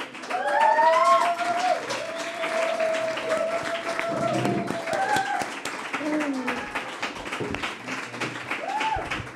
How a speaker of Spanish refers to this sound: Bueno, gracias por aplaudir, pero me gustaría que aplaudierais otra vez ahora, ¿vale? Cuando diga bienvenidas y bienvenidos a la zorra que todo lo sabe.